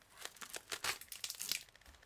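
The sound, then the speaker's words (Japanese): Duct tape peeled slowly off a wall beside a bookshelf, a crackly ripping made of many quick bursts over about two seconds, fairly quiet and with no voices. “何これ本棚の脇なんか壁にガムテープついてんじゃんどうなってんだこれ”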